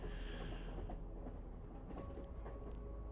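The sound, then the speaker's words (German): A train rolls along the tracks, speeding up, with a low, continuous rumble and scattered metallic clicks and rattles over the top, fairly loud, with no one speaking. “Und du merkst, wird der Zug immer schneller.”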